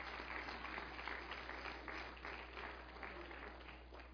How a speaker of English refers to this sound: You may be seated. Go down clapping in Jesus' name.